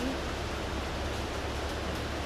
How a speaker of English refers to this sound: It's very busy outside. Yeah, it's it, raining and noisy.